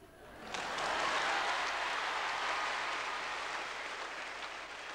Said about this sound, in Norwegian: Og mer applaus skulle det bli.